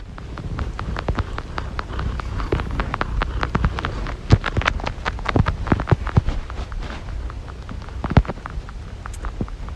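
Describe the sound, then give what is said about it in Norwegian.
A cat purrs in a low, steady rumble while another cat suckles at the same time, its quick, wet, irregular suckling clicks and smacks pattering over it throughout, with no voices. “Vi har en katt som maler, men i tillegg så har vi min rare katt som sutter samtidig.”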